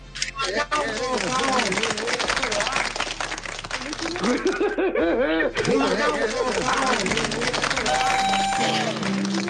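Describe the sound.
A crowd applauds steadily and loudly for several seconds, the dense clapping mixed with many overlapping voices calling out and chattering, with a brief lull partway through.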